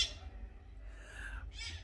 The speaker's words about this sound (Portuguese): Aliás, passarinhos cantam.